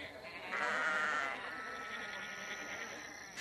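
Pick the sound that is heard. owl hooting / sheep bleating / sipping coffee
sheep bleating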